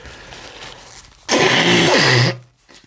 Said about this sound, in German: Und ich würde sagen, ich muss mal wieder hier Nase putzen